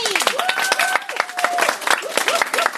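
A crowd applauds steadily, dense overlapping claps filling the room, with cheerful voices and excited calls rising over the clapping throughout.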